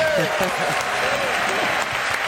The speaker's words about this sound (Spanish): Estamos viendo Aplauso para Salamanca.